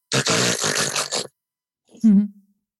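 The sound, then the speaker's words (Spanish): A voice imitates the deep, rasping gasp for air typical of sleep apnea: one long, loud, noisy inhalation, then a short pause and a brief low grunting exhale. “Y una cosa muy típica, que es el jadeo. El jadeo es esa inspiración profunda que, hace.”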